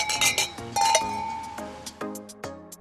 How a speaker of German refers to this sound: Sie stoßen an. Prost, Prost. Prost, Prost. Prost.